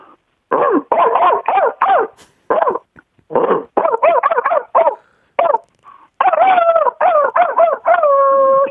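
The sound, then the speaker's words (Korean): A person imitates a big dog barking, a rapid string of loud, gruff barks and yelps, ending with a longer drawn-out howl-like bark. “이제 큰 개하고 작은 개하고요.”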